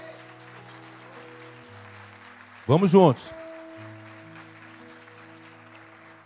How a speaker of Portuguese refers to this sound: Quantos pode aplaudir ao Senhor? Vamos lá.